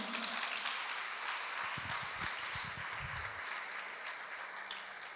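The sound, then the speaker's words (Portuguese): An audience applauds Jesus steadily, a dense wash of many hands clapping at an even level, with a few low thumps briefly showing through partway. “Pode aplaudir a Jesus aí.”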